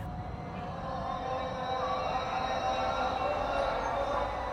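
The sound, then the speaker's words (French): A chanted call to prayer from Cairo's more than 1000 mosques at the end of the day drifts over a steady, dense rumble of city traffic, the sustained melodic voice blending into the continuous background roar. “Et dans ce chaos de circulation, l'appel à la prière, c'est tout ce que j'entends.”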